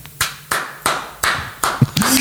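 Six or so sharp hand claps land at a steady, unhurried pace, each a crisp slap that fades quickly. No talking, and a faint hum sits underneath near the end.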